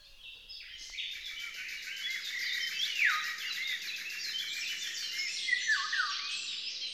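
A great tit sings amid a dense, steady chorus of bright chirps and twitters, fairly loud, running continuously throughout with no voices.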